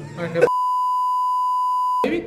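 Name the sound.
censor bleep over speech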